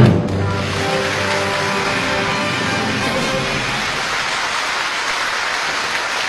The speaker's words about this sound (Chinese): 接下来，掌声有请董明珠女士开讲。